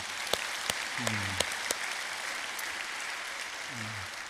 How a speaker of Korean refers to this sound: 우리 시간 함께 우리 하나님께 영광의 박수를 올리면 좋겠습니다.